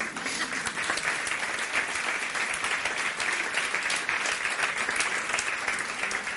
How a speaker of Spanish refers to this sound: Yo recuerdo, gracias por aplaudir.